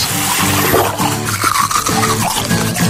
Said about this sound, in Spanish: Cerrar el grifo mientras nos cepillamos los dientes